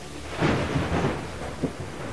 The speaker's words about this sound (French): Alors qu'il quitte la gare, une violente tempête secoue le train.